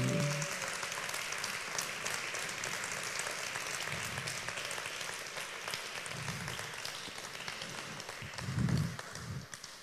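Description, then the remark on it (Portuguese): An audience applauds the word of God steadily for several seconds, a dense wash of many hands clapping at once, loud, with a few low murmurs and shouts rising near the end. “Pode aplaudir a palavra de Deus mesmo.”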